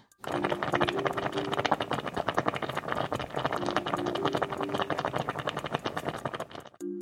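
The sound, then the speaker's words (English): Something bubbles steadily in a pot, a dense stream of rapid, irregular pops and gurgles holding at a fairly even, moderate level for about seven seconds, with no voices, before cutting off. “That sounded like something simmering or boiling.”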